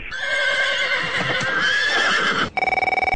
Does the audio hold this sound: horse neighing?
yes